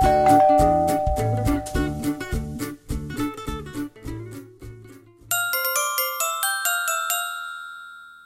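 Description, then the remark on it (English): A bouncy tune with rhythmic plucked notes gives way to bright, ringing ding-dong bell chimes, struck repeatedly in quick succession and left to shimmer and fade. No one speaks. “Ducks go ding dong, ding bong, bing bong.”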